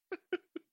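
Three short, nasal chirping calls from a cat in quick succession, fairly close and moderately loud, each clipped and slightly descending, with no talking over them.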